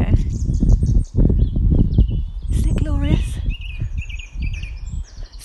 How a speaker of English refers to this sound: And my gosh, the birds! The birds! Can you hear them? They've just been stunning. It feels like one of that. I should be doing a guess the bird call thing.